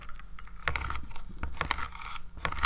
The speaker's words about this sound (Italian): Il coltello sta tritando una carota.